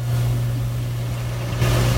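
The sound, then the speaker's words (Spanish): The engine of a used car idles with a steady, low droning hum that holds constant, swelling slightly louder near the end. No one speaks. “Se sube el carro.”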